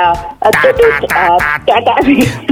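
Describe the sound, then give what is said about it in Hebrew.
A tinny, band-limited intercom speaker that closes its line badly lets out a few seconds of warbling, distorted tones in loud bursts, like an office phone being slammed down rather than a line closing cleanly. “בדיוק, זה האינטרקום, הוא סוגר לא טוב את הקו. כן, זה כזה, כמו לא שטורקים לך את הטלפון במשרד, זה אותו צליל כזה”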